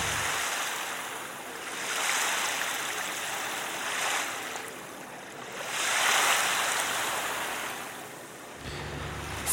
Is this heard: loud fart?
no